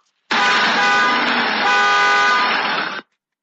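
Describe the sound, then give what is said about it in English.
A car horn blares in one long, steady honk lasting almost three seconds, loud, as the driver pulls into a driveway, then cuts off abruptly into silence. “Karima's father hooted as he drove into the driveway.”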